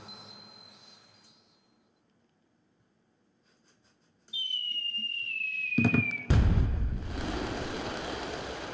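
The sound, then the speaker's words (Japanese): A firework sound effect: a rising rocket whistle that slowly falls in pitch, then a loud deep boom followed by a sustained crackling hiss, with no one talking. “おいおいおいおいおい3回連続 SE の花火が遅いよ”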